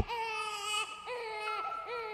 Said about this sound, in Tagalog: Kita ko rin ang umiiyak na sanggol ah, sa may kama. Kawag ito ng kawag at napakalakas ng palahaw.